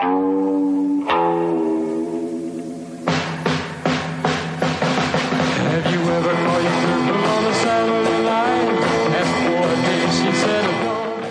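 A pop single plays with no talking over it, opening on sustained harmonic tones before a full band kicks in around three seconds with steady, punchy rhythmic hits and dense, bright instrumentation.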